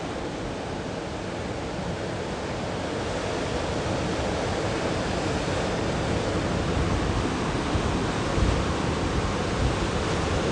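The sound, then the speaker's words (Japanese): A steady, broad rushing wash of ocean surf fills the scene, a continuous roar with only gentle swells and one slightly louder surge near the end, no voices present. “皆さんもこの波の音を聞いて心穏やかにそして自分の内側に深く入り目指すべき道そして場所方向を見ていきましょう”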